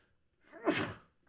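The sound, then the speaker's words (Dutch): A single sneeze, a short wheezy intake building into a sharp burst that fades out within about half a second, with no talking over it. “Gezondheid.”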